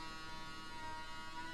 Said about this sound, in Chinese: 你们能听见那边电锯的声音不？哎，每天对面工地，我不知道你们听见吧？我这边耳机里面听的张这的。